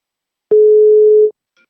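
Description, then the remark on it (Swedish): A single steady telephone ringing tone from an outgoing call to the company Sharespine, one loud, clean beep lasting just under a second, then silence. No voices. “Eh, men nu tycker jag att vi tar och ringer upp”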